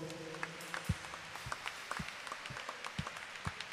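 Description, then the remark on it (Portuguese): A church audience applauds the Lord after a prayer, a steady wash of many hands clapping with sharper individual claps popping out irregularly, fairly soft overall and with no talking. “E o que eu mais desejo é ouvir um aplauso ao Senhor.”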